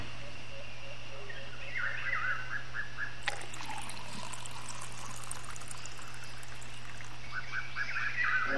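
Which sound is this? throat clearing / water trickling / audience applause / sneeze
water trickling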